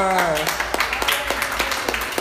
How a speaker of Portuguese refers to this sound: Amém, igreja? Amém! Que as palmas louvem ao Senhor.